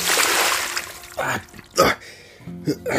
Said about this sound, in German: Ein Eimer eiskaltes Wasser weckte den aus seiner Ohnmacht.